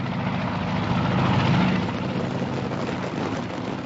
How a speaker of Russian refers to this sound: Два вертолета пересекли небо Маянкума, как рыбы, не оставляющие следов в воде.